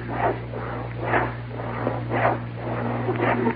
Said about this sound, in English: Hey, that someone sawing wood?